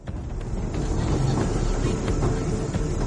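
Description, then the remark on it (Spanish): A train carrying thousands of men to Auschwitz rumbles steadily along the rails, with a dense low-frequency roar and faint rhythmic clatter of wheels running throughout, continuous with no voices. “junto con miles de hombres, se ve obligado a subir a un tren que va directamente a Auschwitz.”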